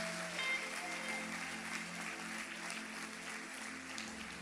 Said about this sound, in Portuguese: Palmas para Jesus. Aleluia. Aleluia.